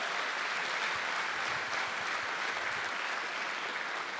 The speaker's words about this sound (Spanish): Dale fuerte ese aplauso al que vive.